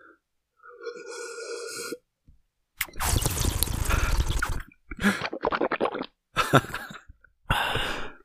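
Someone close to the mic takes a sip of water, with a short tonal sound, a noisy rush of gulping and swallowing, then several brief sputtering bursts like coughs or throat-clearing.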